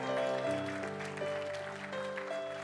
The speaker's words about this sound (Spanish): Dele ese aplauso fuerte a Cristo porque Él es bueno.